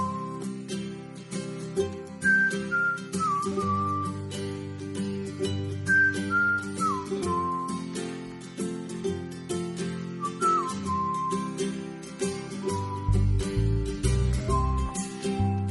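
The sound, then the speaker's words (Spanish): A cheerful whistled melody carries a short jingle introducing a radio's weekly Saturday livestock farming section, over a full musical backing with steady bass and percussion, played loud with no one speaking. “Bueno, y como cada sábado y con estos silbiditos llegamos a la sección de ganadería”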